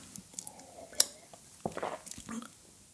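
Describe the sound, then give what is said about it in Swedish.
A quiet sip of water: a sharp click followed by soft wet swallowing and mouth sounds over a few seconds, with no talking. “Jag ska ta lite vatten.”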